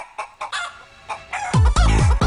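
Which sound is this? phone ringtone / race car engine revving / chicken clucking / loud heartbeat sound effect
chicken clucking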